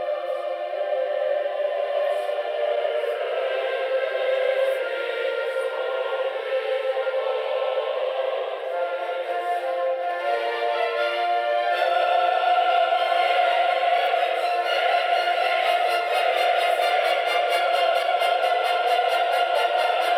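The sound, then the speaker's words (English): Loud choral and orchestral music with sustained brass-like apocalyptic fanfare chords at the sung word 'Judex', the judge who is to come: a dense continuous wall of sound that swells to a fuller, brighter peak partway through, with no talking. “reference to the word Judex, the judge who is to come, brings echoes of the apocalyptic fanfares in Verdi's great Requiem”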